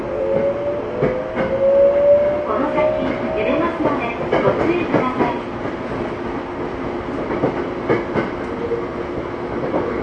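A Tokyo Metro 05 series subway train rumbles along between Ayase and Kita-Ayase, with a steady mechanical drone, rising and falling motor whine, and clattering wheel clicks over rail joints, loud and continuous throughout.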